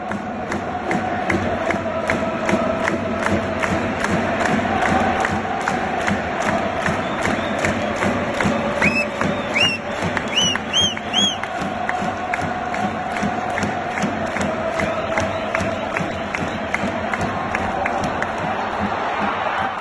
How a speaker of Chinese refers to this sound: 日本的球迷现场的助威声完全压过了德国啊！咱们来听一听。 好的，咱们来听一下。